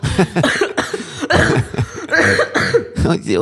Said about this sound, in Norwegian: hoster du?